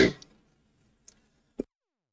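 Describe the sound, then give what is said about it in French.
A fairly quiet, muffled cough after a sip of water went down the wrong way fades quickly, then after a pause comes a shorter, softer second cough, with small throat clicks in between and no talking. “Excusez, j'ai toussé.”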